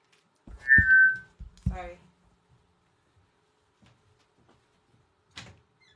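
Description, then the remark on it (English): A loud doorbell chime rings twice in quick succession as someone arrives at the door, a bright tone followed by a buzzier second note, then quiet with a faint knock-like thud near the end. “Somebody's at the door.”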